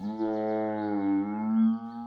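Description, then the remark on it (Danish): An ear-splitting roar from inside the forest, a single sustained roar, deep and richly buzzing, holding a steady, slightly wavering pitch for about two seconds before cutting off, with no voices around it. “men inden de nåede at fortsætte, lød der et øre og rivende brøl inden fra skoven.”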